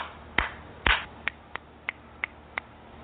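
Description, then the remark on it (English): Hand clapping with no voices, done as a clearing exercise: two fuller, louder claps followed by five quicker, crisp claps in a fairly steady rhythm, each one a sharp, short smack. “We're going to do a little clapping, clearing on that one.”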